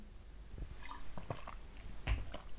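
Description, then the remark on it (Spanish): Someone drinks water: quiet wet sips and swallows, a few soft gulps and mouth clicks scattered over a couple of seconds, with no talking. “Voy a tomar agua de nuevo.”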